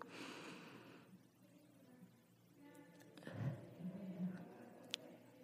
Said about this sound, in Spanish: que es con una respiración honda y profunda para que este momento quede perfectamente sellado y que podamos quedarnos con el mensaje que hayamos recibido el día de hoy en presencia y en conciencia. Así que cerremos con una última respiración.